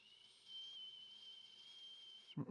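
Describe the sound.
A person whistles one long, steady, high note lasting a little over two seconds, fairly loud, imitating the whistle his father used to call him with, then it cuts off into a brief burst of noise.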